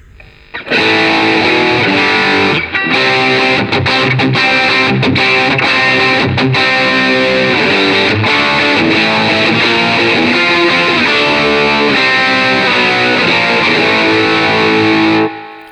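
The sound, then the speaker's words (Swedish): A distorted electric guitar with its gain turned down plays continuously for about fifteen seconds, strummed chords and notes ringing loud and steady with a slightly softened, crunchy edge. No one speaks. “Eh, jag daimar gainen då, mm. så hör vi var vi hamnar då.”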